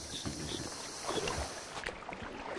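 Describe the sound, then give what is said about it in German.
A small inflatable boat carrying a priest and a soldier's remains back to camp on Guadalcanal moves across water, with a steady rush of water and wind noise and occasional splashes and knocks throughout. “Mit dem Schlauchboot bringt der Priester die Überreste des Soldaten zurück ins Lager.”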